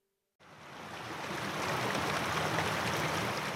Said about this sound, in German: Wir sind auf dem Philosophenweg unterwegs. Ein Bach plätschert am Wegrand.